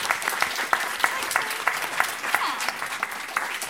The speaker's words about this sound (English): Uh, thank you so much to our panel today. Big round of applause, please, for